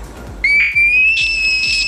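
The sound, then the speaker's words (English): A frog from the Netherlands gives a high, pure whistling call that rings out in one long sustained note, slightly rising like a sung tone, with soft rhythmic low thumps pulsing underneath. “It's a frog that sings like ….”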